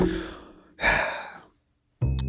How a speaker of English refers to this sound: That was a sobering thought, so I'm going to take a final drink of beer here. Yeah, sobering undone.